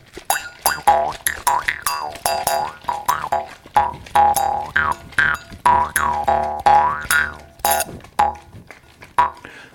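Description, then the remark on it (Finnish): A jaw harp plays a bouncy, rhythmic drink-of-the-week jingle: quick twanging plucks with a steady low drone and overtones that sweep up and down in a wah-like, boingy way, fairly loud and unaccompanied. “Samalla kun sä sheikkaat sitä, mä voin soittaa munniharpulla viikon juoma jingleä.”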